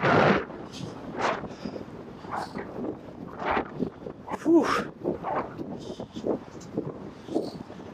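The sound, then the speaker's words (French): Strong wind buffets the microphone in uneven gusts, producing a loud, rumbling roar that surges and fades continuously throughout, harsh. “Je sais pas si vous entendez le vent là, mais c'est puissant.”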